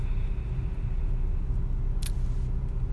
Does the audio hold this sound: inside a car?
yes